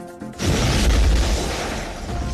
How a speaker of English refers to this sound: … was on patrol when the truck exploded and his dashcam caught every moment.